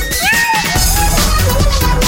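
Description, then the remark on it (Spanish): A single drawn-out cat meow rises and falls in pitch near the start, clear, over a steady layer of background sound. “el gato más dormilón, más tierno y maullador.”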